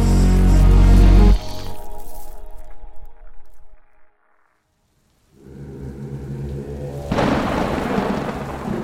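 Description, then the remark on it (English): A heavy, booming thunderclap opens, then fades into a low rumble and a brief hush before steady rain hisses back in, growing louder and denser toward the end. No one speaks. “One rainy night, a taxi driver cruises by a lonely dark street in New Manila.”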